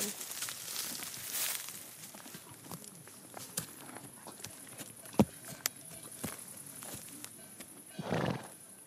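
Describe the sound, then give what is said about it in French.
Donkey hooves clop irregularly along a trail as donkeys accompany a group on a mountain hike, sharp knocks spaced a second or so apart over a steady outdoor background, with a brief breathy rush of sound near the end. “Et puis euh, j'aime bien les ânes qui nous accompagnent.”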